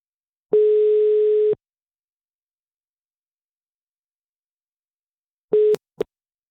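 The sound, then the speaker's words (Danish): A steady telephone line tone sounds for about a second while phoning a randomly picked person, followed by silence, then a shorter beep and a brief click as the call cuts off. No one speaks. “og så prøver vi at, at ringe til dem.”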